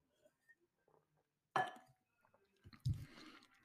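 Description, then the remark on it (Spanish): Quiet drinking sounds as a speaker takes a little water: a glass clinks sharply, then a pause, followed by soft sips and gulps of water, with no talking. “discúlpeme un poquito de agua.”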